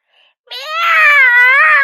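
A cat with a torn ear, rubbing it against a window, lets out a single loud, drawn-out howl that swells and holds steady at a fairly high pitch for over a second, sounding strained and mournful, so loud it makes him cough and splutter, with no talking around it.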